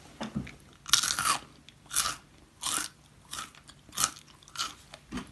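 Someone crunching a crunchy snack: a steady series of about eight loud, crackly bites and chews with bright, noisy bursts, each separated by short pauses, no talking.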